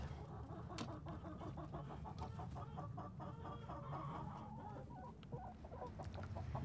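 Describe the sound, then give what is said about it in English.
A flock of chickens on a farm, kept in moving chicken mobiles, clucks steadily: many short overlapping calls in a busy rhythm over a constant low rumble of outdoor background noise, with no talking. “And actually, in practice, it's not so difficult with just moving chicken mobiles, but it makes a tremendous impact.”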